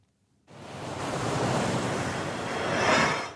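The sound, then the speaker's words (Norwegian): Loud, steady rush of ocean waves and gusting wind roars in after a brief silence at an offshore oil platform in the North Sea, swelling toward the end with a surge of surf; no voices. “Det sjekkes for rust på en plattform i Nordsjøen.”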